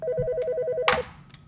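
A telephone rings with a fast warbling trill of alternating tones, loud, cut off by a sharp clunk as if the receiver is picked up, leaving quiet room noise.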